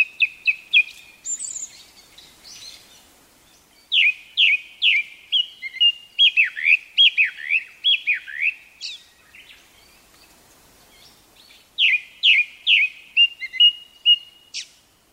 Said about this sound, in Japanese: 黒っぽくて地味な色合いの黒つぐみですがさえずりの美しさは日本の夏鳥の中でも群を抜いていますよく通る声色ながら高すぎず複雑な節回しと豊富なフレーズのバリエーションは長く聴いていても飽きることがありません